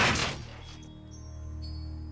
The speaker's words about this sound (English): Silence follows before the doors hit with a force that sends me against the wall. I try to get a hold of myself even though my ears are ringing from the blast.